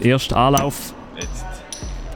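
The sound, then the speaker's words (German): A man speaks briefly, then a sharp, bright pop as a bottle cap is flicked off with a lighter, sending the cap flying far away, followed by two dull, low thuds spaced about half a second apart. “Man, man hört es im Hintergrund, es ist ein bisschen Lärm und der, der Deckel ist ja gerade weit weggespickt, weil...”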